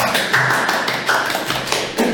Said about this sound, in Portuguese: A salva de palmas.